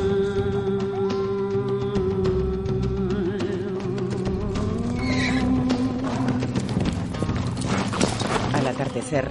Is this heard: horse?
yes